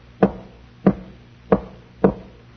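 Four firm knocks on a door, evenly spaced about half a second apart, fairly loud with a slight hollow ring, with no voices.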